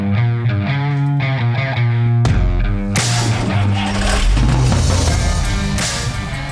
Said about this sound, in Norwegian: Nei, jeg tror jeg må kjøre en vignett, jeg nå også.